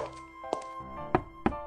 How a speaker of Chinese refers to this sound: 他敲开于梦瑶的房门，拿了车钥匙，头也不回的就离开了酒店，直奔战场。